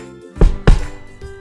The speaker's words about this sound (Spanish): Volvió a la casa de los siete cabritos y llamó a la puerta.